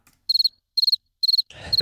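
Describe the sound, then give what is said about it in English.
A crickets-chirping sound effect: crickets chirp in steady, evenly spaced bursts of about four quick, high pulses, clear, with a low rumbling noise rising underneath near the end. “where's the crickets?”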